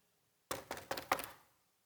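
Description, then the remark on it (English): Four quick knocks on a hard surface in an even rhythm, fairly loud, each with a short ringing decay, then quiet. “You know what knocking is?”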